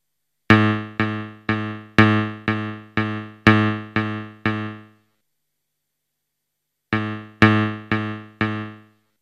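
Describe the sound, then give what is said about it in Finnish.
Tones from a musical aptitude test: a sequence of short, evenly spaced harmonic tones, eight in a steady rhythm, a pause, then a shorter group of four, each note sharply struck and quickly decaying, played alone without any talking; the listener judges whether the tones are the same or different. “Tämä on vähän aika hitaalaisesti etenee tälle nopealle nykyihmiselle, mutta nyt tässä tulee tämän pitkän testin neljä eri testiosaa. Kuunnellaan.”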